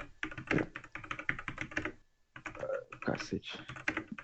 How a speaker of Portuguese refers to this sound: Cara, eu troquei de teclado aqui, agora eu vou digitar os bagulho erro tudo, irmão, porque as os bagulho é diferente, colado.